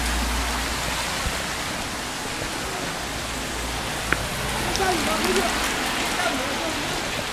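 Steady rain falls outdoors at West Lake in Hangzhou, China, on an April day, in an even, dense hiss that never lets up, with faint murmuring voices underneath and a single sharp tap partway through.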